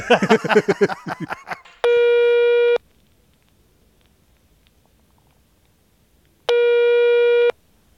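Two long, steady electronic telephone tones sound on an open line while a call is being placed, each about a second long with a gap of several seconds between them, preceded by a brief burst of talking at the start.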